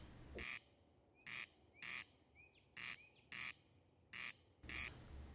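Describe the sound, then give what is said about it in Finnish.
A corncrake's dry, rasping call repeats steadily, about seven harsh grating bursts spaced in a regular rhythm, loud, with faint bird chirps in the quiet gaps. “Ruisrääkkä.”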